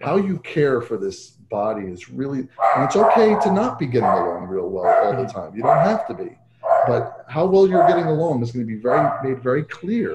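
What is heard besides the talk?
dog barking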